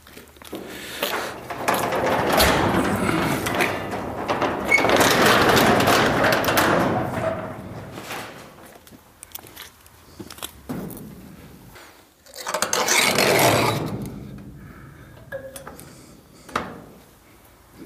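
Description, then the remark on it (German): A car door is shut with a solid thud amid a stretch of rustling and handling noise as someone gets in to ride along; fairly loud, with quieter shuffling in between. “Mach die Tür zu, Fest mit.”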